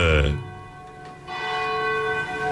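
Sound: cathedral church bell ringing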